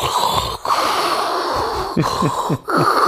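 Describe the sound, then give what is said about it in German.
A person imitates a sleep apnea breathing machine with steady, noisy hissing breaths, a few snorting gasps and brief pauses, fairly loud, with no talking. “ich habe erstmal Schlafapnoe. Ne? Ja. Das heißt, ich müsste eigentlich so eine Maschine neben meinem Bett stehen haben, wo ich so”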